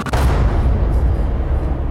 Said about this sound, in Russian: Действуя группой лиц по предварительному сговору, изготовили взрывное устройство, снарядили автомобиль и взорвали его у здания ОГИБДД.